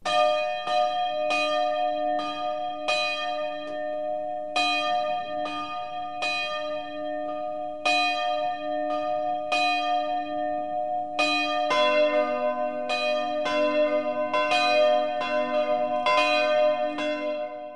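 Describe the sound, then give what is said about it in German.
Several church bells in Walchensee, Upper Bavaria, ring the 12 o'clock midday chime together in a steady, overlapping rhythm, their strikes ringing out loud and resonant with long humming tones between, no voices present. “Michael Mannhardt hat den Ort zu Füßen des Herzogstands besucht und das Glockengeläut aufgenommen.”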